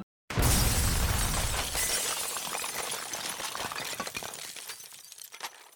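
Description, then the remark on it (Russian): A sudden, deafening crash of a collapsing wall of a slaughterhouse workshop with a heavy low rumble, followed by gravel and rubble clattering and trickling down in scattered bursts that slowly thin out over several seconds. “Посыпалась щебенка, и одна из стен цеха рухнула – обнажив огромный бульдозер, который двигался к октагону.”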